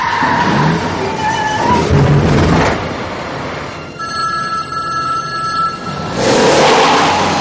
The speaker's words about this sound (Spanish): Llega a una calle y ve una cabina telefónica. Un camión de la basura se detiene enfilando contra la cabina.